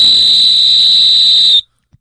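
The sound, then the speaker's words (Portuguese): A whistle someone brought along, blown hard in one long, piercing, steady high blast lasting about a second and a half, then cutting off abruptly, followed by a brief faint thump. “O cara trouxe um apito.”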